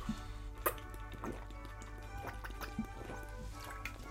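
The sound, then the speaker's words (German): Someone sips and swallows tea in a few soft, wet slurps and gulps spread over several seconds, with quiet music playing steadily underneath. “Entschuldigung, kurze Trinkunterbrechung, aber ihr wisst, ungeschnitten”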